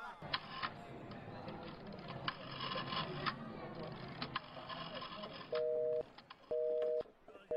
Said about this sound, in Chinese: 打电话。